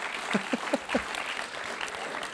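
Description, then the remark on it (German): Audience applause, a steady wash of clapping hands lasting a couple of seconds, with a few sharper claps standing out near the start before it evens out. “Komm, gib mal, ab, nee. mal einen Applaus.”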